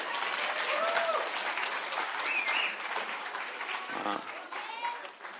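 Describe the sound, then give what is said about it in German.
Steady audience applause, a dense wash of many hands clapping, with a few voices calling out briefly over it before it starts to fade near the end. “Das war jetzt eigentlich der Applaus für meine Frau, die hat mich nämlich auf die Idee gebracht.”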